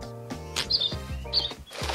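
A small bird chirps in a few short, high bursts spread across a couple of seconds, heard over a steady, tonal musical background at moderate volume.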